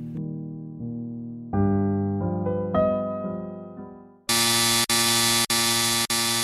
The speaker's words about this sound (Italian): Improvvisamente la sirena d'allarme mette un suono assordante, le luci intermittenti iniziano a lampeggiare